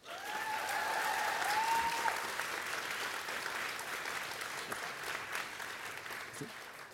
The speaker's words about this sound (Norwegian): Veldig fint med klapping og sånn, men den tar veldig mye taletid.